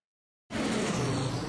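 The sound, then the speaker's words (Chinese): Half a second of silence, then the steady, broad roar of an airplane flying, loud and even, a constant rushing drone with a low rumble underneath and no voices. “听到飞机声，代表我们又要从台东的南横公路飞到美国的油金啦。”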